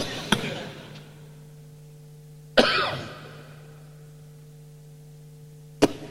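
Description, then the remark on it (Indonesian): Three separate coughs, spaced a couple of seconds apart; the middle one is the loudest and longest, with a low steady hum running underneath. “Kenapa cuma saya yang batuk?”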